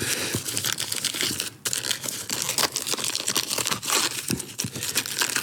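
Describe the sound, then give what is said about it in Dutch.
Loud paper crinkling and ripping that runs continuously for several seconds, with sharp tearing bursts and rustling as gift wrapping paper is torn open to unwrap a present, a game; no voices. “ik heb een eh, cadeautje voor je.”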